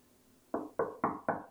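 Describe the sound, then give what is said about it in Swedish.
Five firm knocks on a locked bedroom door in a steady, even rhythm, fairly loud, each with a quick sharp attack and short decay, the last one slightly louder. “Någon knackar på min dörr.”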